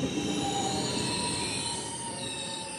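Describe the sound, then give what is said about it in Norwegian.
A train rumbles steadily as it arrives at a station in Norway, its wheels letting out a sustained high-pitched squeal against the rails as it rolls in, with no voices present. “Det er ingen selvfølge at dette toget kommer til stasjonen i tide.”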